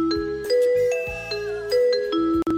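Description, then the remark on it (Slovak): A train announcement chime heard on a train plays a short melody of about seven clear, ringing electronic tones in steady succession, fairly loud, with no voices. “A viete, čo je najromantickejší zvuk, ktorý sa dá počuť vo vlaku?”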